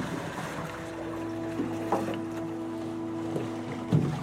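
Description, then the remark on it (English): A seaplane is dragged by a rope through cold, shallow water onto the rocky shore of Walker Lake by a person who jumped into the water: a low, steady mechanical hum runs throughout while a few irregular splashes and scrapes break in, loudest near the end. “jumps out into the cold water and drags the seaplane onto the rocky shore by a rope.”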